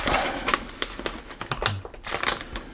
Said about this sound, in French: Donc c'est deux petites manips avec du, scotch où je vais masquer toutes les parties que j'ai déjà peintes et les grandes bandes de papier. Voilà, ça c'est du masquage, je sais pas.